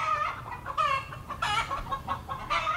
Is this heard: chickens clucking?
yes